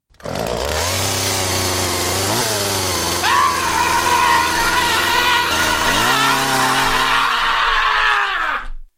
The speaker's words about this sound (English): Was that some sort of um, chainsaw massacre at the end there? Exactly right. I put that together very quickly just to show, you know, the uh, uh, my my burglar deterrent, my shed intruder alarm.